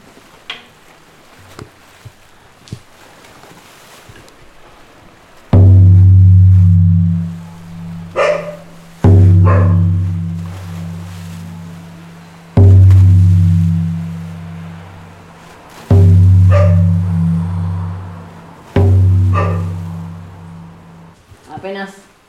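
Five long, deep bass notes from a drum sound one after another, and Merlina, a female dog, barks in short bursts between them, answering the low tones.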